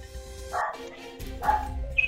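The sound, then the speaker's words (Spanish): A discontented female dog barks a couple of times in short, harmonic yelps, with a high whiny edge near the end; faint background noise sits underneath. “Bueno, mi perra está en descon, descon te está interrumpiendo.”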